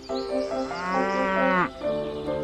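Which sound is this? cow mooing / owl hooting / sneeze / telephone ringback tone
cow mooing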